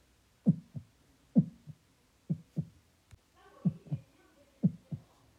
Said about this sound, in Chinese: 佐良娜呢心跳使劲的加快。